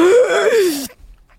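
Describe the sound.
A voice imitates a sharp, strained, loud gasping intake of breath, as of someone starting to breathe again with aching lungs: a single drawn-out voiced gasp that falls in pitch before cutting off into near silence.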